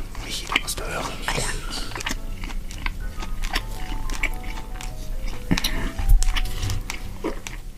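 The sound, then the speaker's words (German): Someone bites into and chews chicken to test whether it is fresh, with irregular crunchy clicks and moist smacking sounds running steadily throughout, fairly loud, mixed with soft breathy noise. “Ich probiere mal kurz, ob das Hähnchen auch frisch ist, okay? Du musst ja, du musst hören.”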